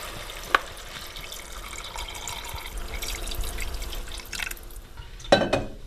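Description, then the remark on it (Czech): Cold water pours steadily into a cooking pot over diced pumpkin, potatoes and onion for several seconds with a rushing, splashing sound, bracketed by a sharp clink at the start and a louder metallic clatter near the end. “No a pak se to teprve zaleje.”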